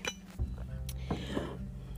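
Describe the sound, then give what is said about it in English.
Coffee mugs clink together in a toast, with a few short ceramic taps spread over about two seconds against a low background hum. “so coffee cheers my friends to another beautiful day.”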